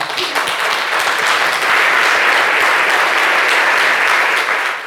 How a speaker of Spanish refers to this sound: Dele fuerte ese aplauso al Señor.